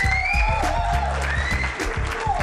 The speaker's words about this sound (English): We made it out of 2021. And that alone deserves a round of applause.